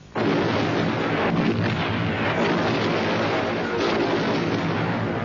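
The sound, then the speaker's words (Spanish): Continuous, heavy bombardment from long-range cannons firing tons of explosives into the heart of a city surrounded by German troops, with dense, overlapping explosions and deep rumbling booms, loud and sustained throughout with no pauses or voices. “los canons à longue portée lancèrent des tonnes et des tonnes d'explosifs au cœur de la ville.”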